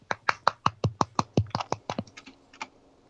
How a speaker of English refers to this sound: No, applause is a lot of people clapping. So when one person's just clapping, it just kind of sounds like an insane person.